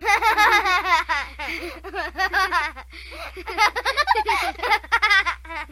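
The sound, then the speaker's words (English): A stock sound effect known as the Diddy laugh: a chorus of young children laughing together in bright, bubbling giggles, bursting out in quick repeated waves that rise and fall for several seconds, loud with no speech. “and that's this thing called the the Diddy laugh.”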